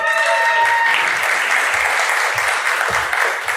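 A crowd breaks into sustained applause, dense clapping filling the space at a steady loudness for several seconds, with a brief whistle or cheer near the start.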